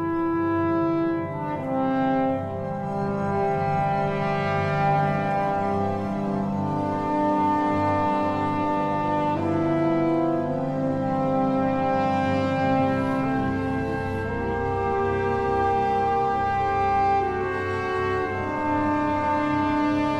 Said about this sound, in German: das ist das Alphorn-Thema im vierten Satz. Ja, und das ist super markant. Das kann man auf jeden Fall richtig gut wiedererkennen, wenn man die Sinfonie im Konzertsaal hört. Brahms hat das Thema 1868 als Geburtstagsgruß an Clara geschickt, stimmt, ne?